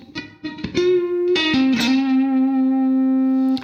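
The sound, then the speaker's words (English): Distorted electric guitar plays a short legato run on the D string, pulling off to the 9th fret and down to the 11th, then hammering on again, stepping between pitches, then settles on a long sustained note held with vibrato. No one speaks. “Then we're just going to pull off to nine, down to eleven on the D string, and then hammer on again with vibrato.”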